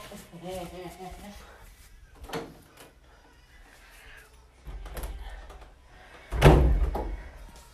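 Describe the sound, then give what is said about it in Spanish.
A door is pushed shut with a single solid thud near the end, after a few seconds of quiet shuffling and a brief voice at the start. “Voy a cerrar la puerta.”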